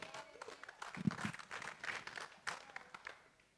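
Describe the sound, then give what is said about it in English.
An audience claps in a steady, dense patter of overlapping hand claps, fairly soft overall, with a faint voice murmuring underneath before the applause tapers off. “Yeah, you can clap.”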